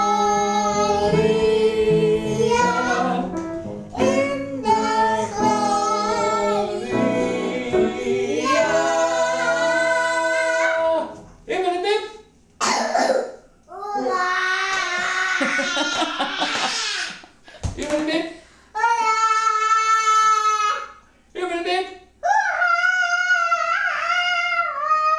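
A piano played by the speaker's husband accompanies as a small family sings a birthday song, a three-year-old toddler's high voice breaking into giggles and laughter between lines.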